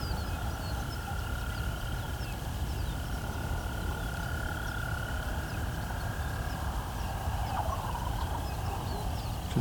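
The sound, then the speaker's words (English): A wild turkey gobble call rises faintly out of a steady wash of outdoor ambience, with a constant droning insect or frog chorus holding underneath throughout. “heard a turkey behind me somewhere. Wild turkey gobble call.”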